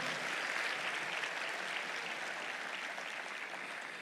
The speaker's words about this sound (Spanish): Denle el mejor aplauso al Señor entonces.